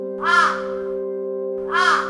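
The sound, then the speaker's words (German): Two loud, harsh raven caws, one near the start and another after a pause of over a second, ringing out over a steady tonal hum in the background. “denn schon tönte die laute Stimme der Rabenrätin Rosmarie wieder durch die klitzekleine windschiefe Hütte”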